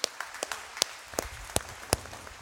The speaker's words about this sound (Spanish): ¿Quieren pasar, por favor, el worship, el nuestro, nuestro eh, el worship de hoy? Que quiero darles un aplauso, por favor, a todos.